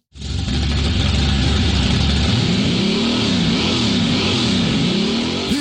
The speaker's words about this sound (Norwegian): Hører du kjerra mi i bakgrunnen? En 57-modell Chevy 350 fra Halden. En rå V8-er med høy lyd og høyt bensinforbruk.